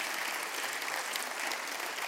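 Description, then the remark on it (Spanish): A church audience applauds children and their volunteers, a dense wash of many hands clapping at a constant level for a couple of seconds with no voices standing out. “Un aplauso fuerte para estos niños y para sus voluntarios”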